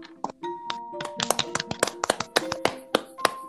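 A small group applauds for a few seconds, with sharp, uneven claps scattered at a moderate level and some faint tonal vocal sounds mixed in. No one speaks.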